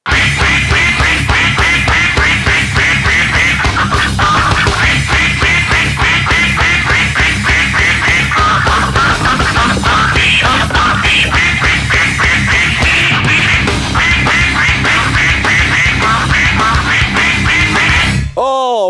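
A duck quacks loudly in a fast, nonstop stream of harsh, raspy calls for nearly twenty seconds, ending abruptly with a brief tonal sound.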